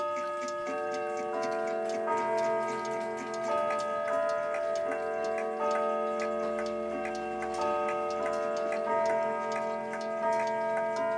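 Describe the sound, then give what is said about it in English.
Several clocks tick at once, their overlapping beats forming a busy, uneven patter, while steady ringing chime tones hum beneath throughout. No one speaks. “Like numerous clocks, all the ticking, all like combining together.”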